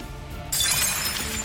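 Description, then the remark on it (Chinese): A loud glassy shattering bursts in after a low rumbling start, bright crackling fragments and tinkling shards spreading for about a second as a magical shield breaks apart like glass. “防护盾瞬间瓦解。”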